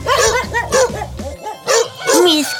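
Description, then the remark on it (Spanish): Two farm dogs bark in quick, uneven bursts, loud, with a low steady hum underneath for the first half that drops away before the last few barks. “Así la mujer se llevó los perros a casa y les enseñó el lugar y les explicó lo que debían hacer.”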